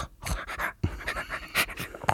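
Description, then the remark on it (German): A very small dog, asleep and dreaming on a person's lap, pants in quick, soft bursts, a rapid breathy rhythm with no one talking over it. “Und wenn Hunde träumen, dann machen die erstens, vielleicht kriegen wir das gleich mit. Sie macht im Moment nur so.”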